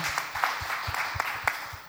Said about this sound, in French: Donne-moi l'applaudissement.